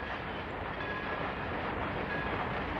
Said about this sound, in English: The room shakes to the gentle thunder of a train travelling the ravine that separates the house from the suburban sprawl